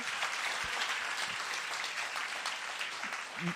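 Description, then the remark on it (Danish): A church audience claps steadily throughout for the church's finance manager, a dense, even wash of many hands with no pauses, and a few brief low voice sounds poke through near the end. “Hun er der, og ja, så skal I da klappe.”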